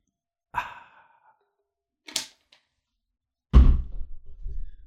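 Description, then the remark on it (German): After a breathy exhale and a brief rustle, a water bottle is banged down hard on a table with one loud, low thud that rings out briefly. “Ja, die ganzen atmosphärischen Sounds, wie ich hier die Wasserflasche auf den Tisch knall, sind halt jetzt auch mit dabei, aber das ist schon in Ordnung, glaube ich mal.”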